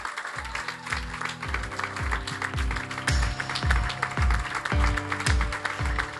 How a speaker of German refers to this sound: ich fände es gut, dass wir den beiden einfach mal einen Applaus geben dafür, dass sie hierher gekommen sind, um uns zu dienen und hier in diesem Land zu dienen.